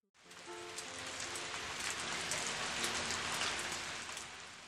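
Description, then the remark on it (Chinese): Steady rain falls in a dense, even hiss, with soft patters of drops throughout and a few faint low tones underneath; no one speaks. “我这里下雨了，你那儿呢？”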